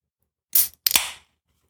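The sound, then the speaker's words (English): A beverage can of a drink blended with terpenes, mushroom extracts and monk fruit extract is cracked open: a sharp metallic click of the tab, then a brief, loud fizzing hiss of escaping gas, with no talking over it. “We've gotten really good at that sound effect of opening the can.”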